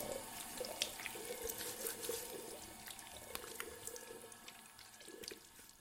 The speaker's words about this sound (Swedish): Han sköljde av ansiktet med kallt vatten.